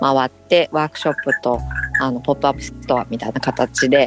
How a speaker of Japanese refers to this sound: 今あの、奄美大に来ておりて奄美大島から、はい、はい、今ね そうなんか音がするなと思ったらカエルの鳴き声なんですね。